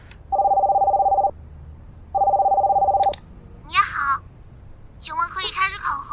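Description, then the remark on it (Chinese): A QQ online voice call's ringing tone: two long, steady, mid-pitched electronic tones separated by a short pause. A voice then starts talking once the ringing stops. “别整那些乱七八糟的，用 QQ 语音吧。”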